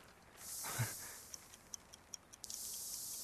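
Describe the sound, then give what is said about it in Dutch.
A brief soft rustle or click as a pocket watch is opened, then the watch ticking in a quick, steady rhythm, the small crisp ticks fairly quiet against a faint hiss, with no voices. “ik sla het horloge een laatste keer open.”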